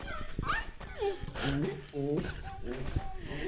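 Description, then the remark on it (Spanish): A dog whimpers and whines in several rising, wavering cries, with a short yip or two mixed in, while someone talks over it. “Puta, es que el perro arruinó todo el chiste.”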